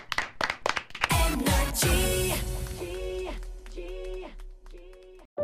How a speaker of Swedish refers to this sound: Tack för den här morgonen. Du får en applåd av oss.